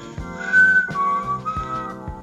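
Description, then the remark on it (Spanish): A person loudly imitates a whistle, a sustained piercing tone that bends slightly downward in pitch, over a soft steady musical backdrop with a few low thumps. “Y nosotros estábamos como medio como sentados así afuera y empezamos a escuchar un silbido. Un silbido. Sí, capaz que se satura el micrófono, pero era como.”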